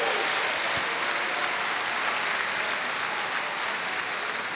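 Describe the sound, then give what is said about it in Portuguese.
A church audience applauds steadily to give glory to God, many hands clapping in a dense, even wash of sound for several seconds without pause. “Diga glória a Deus, dê um aplauso, glorifique, exalte, cante, louve.”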